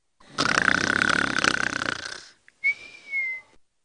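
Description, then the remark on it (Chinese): A voice imitates a snore: one long, rasping, gravelly inhale of about two seconds, then a brief pause and a thin, high whistling exhale that trails off. “爸爸的鼾声总是断断续续的，使我担心 火车出轨了。”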